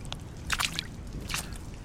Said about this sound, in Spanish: ni siquiera el sonido del agua al romper la tensión por un objeto evitan que hunda el saco